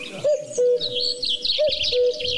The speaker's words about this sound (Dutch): Ja hoor, dat is een koekoek. Koekoek, is dat goed?